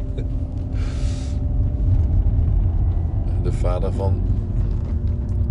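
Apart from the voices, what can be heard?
car engine running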